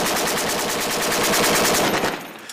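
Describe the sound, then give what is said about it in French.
Rapid automatic gunfire in Baghdad, Iraq, in 2006, from a shooter during a Kurdish unit's advance, in a sustained burst of evenly spaced, loud cracks lasting about two seconds, then cutting off into a quieter tail. No one speaks. “Il y a encore un tireur là-bas.”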